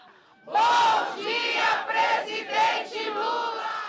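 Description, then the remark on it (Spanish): A large crowd of supporters at a camp outside the prison in Curitiba chants in unison "presidente Lula!", loud rhythmic shouted phrases rising and falling in repeated bursts, many voices blending into a sustained roar. “Hay que acordarse, por ejemplo, que los casi dos años en que estuvo preso había un campamento de gente eh, que, que se quedaba fuera de la cárcel en, en Curitiba y todos los días le gritaban...”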